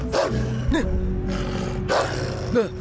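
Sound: dog growling and barking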